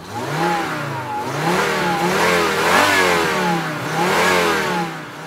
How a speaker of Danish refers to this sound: Så sætter han nøglen i og starter bilen, og så får han sat den i gear og kører langsomt fremad.